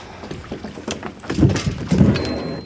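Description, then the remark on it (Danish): Rustling and knocking as a mooring rope is handled aboard a sailboat, with a few sharper thumps and scrapes building louder over a steady background of wind and water. “Jeg tager snoren, eller trossen.”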